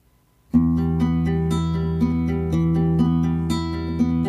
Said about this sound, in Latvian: Lai skan dziesma!